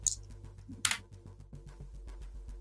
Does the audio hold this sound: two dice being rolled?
yes